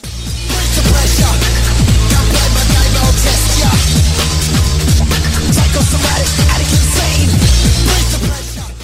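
A loud, driving electronic dance track from 1996 plays with a pounding kick drum, heavy bass and dense layered synths, pumping in a steady rhythm throughout with no voices over it.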